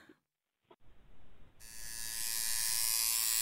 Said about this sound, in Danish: ligesom du selv sagde i starten faktisk, med når du hører den der lyd, så får du sådan en hel uh, øh, craving der, så vil du gerne ned og tusses, ikke?